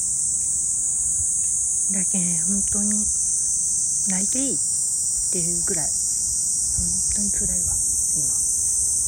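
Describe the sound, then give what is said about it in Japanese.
Cicadas drone in a steady, loud, high-pitched buzz throughout in a park in summer, with a woman speaking in short phrases over the constant insect chorus. “わあセミがうるさいですかしょうがないんですけど。”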